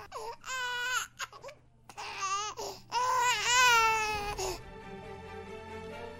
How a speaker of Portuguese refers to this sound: teve a impressão de ouvir um choro de criança, que parecia sair do túmulo